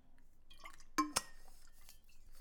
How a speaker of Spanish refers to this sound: Déjame tomar un poquito de agua.